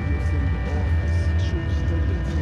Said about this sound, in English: Alap's music is always built off this constant humming sound. However heavy the music gets, that scaffolding always connects back